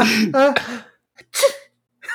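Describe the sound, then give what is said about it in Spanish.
A man's voice imitates the small, delicate sneeze of his wife, like a little rabbit: a breathy intake, then a few quick, light, squeaky bursts, fairly soft, with short pauses between them. “Y yo me la acuerdo de mi señora, güey, porque estornuda así como conejita.”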